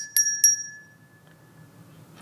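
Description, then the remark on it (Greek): A small hand bell rings twice in quick succession, bright, its high metallic tone lingering and fading over a faint low background hum. “πρέπει όπως είπα και προηγουμένως να ηχήσουν τεράστιες καμπάνες, όχι αυτά τα απλά καμπανάκια που έχω εδώ.”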